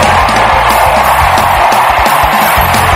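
A large crowd roars continuously with overlapping screams, cheers and shouts, loud, forming a dense wall of voices that never lets up.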